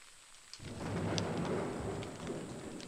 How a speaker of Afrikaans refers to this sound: Tot almal se verbasing, steek daar reën weer op voordat die vertoning begin.